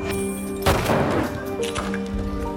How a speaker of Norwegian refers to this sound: Og han kan ikke kjøre ned dem så da må jeg skyte. Så høres lyden av pistolskudd.